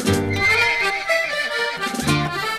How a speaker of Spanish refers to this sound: Al tratar de poner el freno al caballo, el animal lo sintió. Se puso arisco, pateó, brincó y ni siquiera dejó que el abogado pudiera ponerle una mano encima.